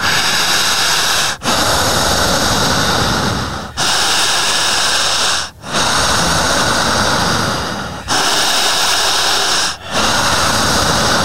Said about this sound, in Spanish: Jalando el aire. Jalando el aire. Otra vez. Al respirar en esta forma, siga fuerte y siga profunda.